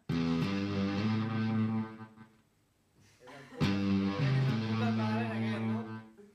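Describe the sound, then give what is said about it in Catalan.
Electric guitar played through a fuzz pedal, its bias set for a grainy, sputtering tone, rings out in two sustained phrases of held notes separated by a short quiet gap, loud with no talking. “Veieu que sembla que sembla que s'estigui morint l'ampli, no? Aquest granulat, eh?”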